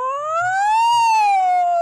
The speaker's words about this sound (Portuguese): É a ambulância besta!